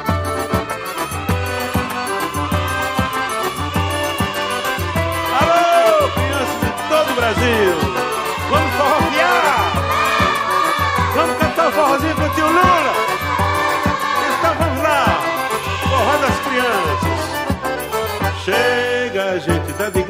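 A lively forró song plays loudly and continuously, with a man singing over a full, rhythmic band accompaniment throughout.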